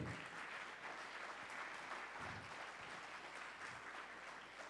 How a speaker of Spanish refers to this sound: Entonces, para los que gloria a Dios, dele palmas al rey.